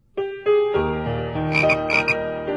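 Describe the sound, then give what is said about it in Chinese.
A frog croaks in a few loud, resonant calls, the harmonic croaks stacking up and overlapping, with a brighter chirpy rasp entering toward the end. No one speaks. “春天来了，池塘里的冰融化了，青蛙妈妈睡了一个冬天，也慢慢的醒了过来。”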